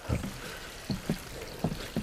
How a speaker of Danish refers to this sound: Og hører, hvordan der løber en, en lille bæk, ja. ikke, som kommer løbende ned, og der er øh, okker i bækken, så øverst op, der er der sådan helt, øh, helt orange lag.